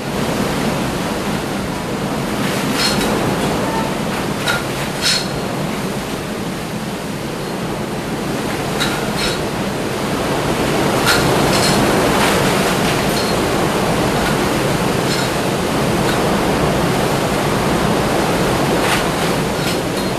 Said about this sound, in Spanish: Y esas son, las ventanas están totalmente cerradas y unas cortinas que están, como se mueven con la furia de los vientos del huracán. Ahí se acaba de caer un pedazo de cortina, pudieron escuchar, con la furia de los vientos.